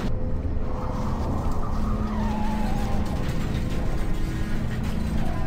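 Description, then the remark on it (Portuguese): A Thunderbird car skids under hard braking as it runs over something on the road, its tires letting out a falling squeal over a loud, steady rumble of engine and road noise. No voices. “Um instante depois, enquanto ainda estava mudando o pé do acelerador para o freio, sentiu um solavanco horripilante sobre as rodas dianteiras e logo em seguida sobre as traseiras.”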